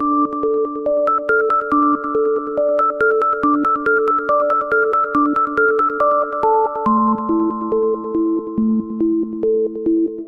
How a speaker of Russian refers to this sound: Позаимствовав ее для своего трека «…», ростовский электронный дуэт … в начале нулевых попал на верхние строчки британского хит-парада.